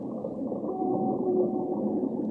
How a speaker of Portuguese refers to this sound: Baleia. A baleia canta.